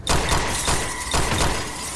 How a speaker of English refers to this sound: Gunshots rang out from the vehicle behind, piercing his rear windscreen.